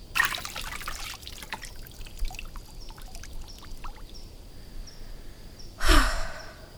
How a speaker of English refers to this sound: O oh, magical fountain, I've brought the blood of a fox. I'm going to pour it in now, and then I will say my wish.